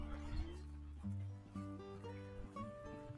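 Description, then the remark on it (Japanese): Two Shiba Inu dogs, being walked by a middle-aged man, whine and yip in a run of short, tonal cries with a few barks mixed in, with no one talking over them. “あの、今ね、あの、おじさんが柴犬2匹散歩させてたんで、させてたんですが、”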